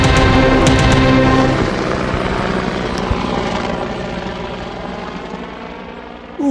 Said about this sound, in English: Welcome back to the Weatherlight Report, coming to you live from Weatherlight Chopper.